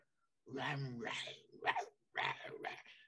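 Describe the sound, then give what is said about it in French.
A voice imitates a wolf noisily eating, with two bursts of wet, growly chomping and smacking sounds separated by a brief pause, fairly loud. “des fois, il y a ce bruit-là, puis je suis comme, ah, c'est-tu un humain ou c'est un loup qui mange?”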